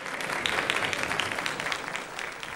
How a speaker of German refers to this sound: Der Beifall der Gäste grüßt nun Erich Honecker, Willi Stoff und Horst Lindemann, die mit ihren Gattinnen jetzt den Saal betreten